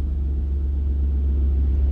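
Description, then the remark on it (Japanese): A steady, heavy low-frequency rumble fills the interior of a car that is moving on a rainy day. It is loud and continuous for the whole stretch, with no voices over it. “えー、ということで、今日も車の中スタジオです。”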